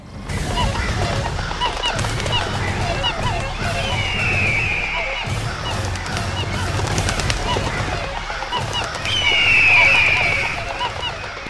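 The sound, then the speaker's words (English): A loud, chaotic chorus of birds honking and squawking over one another, harsh and continuous, with a couple of shrill calls cutting through the racket. “Because there was no way to sort out, in a respectable way and a reasonable fashion, the birds all went to war.”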